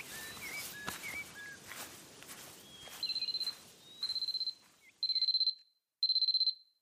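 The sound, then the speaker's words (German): An alarm clock, still set from the day before, rings at seven o'clock in four repeated bursts of rapid high-pitched beeping, each about half a second long and growing louder, after some soft rustling and faint chirps. “Äh, äh, äh, wieso klingelt das blöde Teil so früh? Ist doch erst sieben.”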